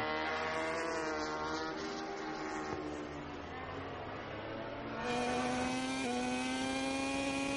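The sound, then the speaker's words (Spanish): A loud onboard racing motorcycle engine, on the bike of the race leader during a race, screams steadily, its high-pitched whine dipping and then climbing sharply again as it shifts and accelerates; no voices are heard. “Ahí estamos en la moto del que va en cabeza de carrera.”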